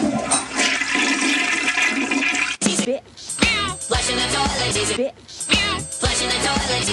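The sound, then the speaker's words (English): A toilet flushes with a loud, rushing gush of water, overlapped by a cat's repeated meows that rise and fall in pitch, all fairly loud. “Flushing toilet.”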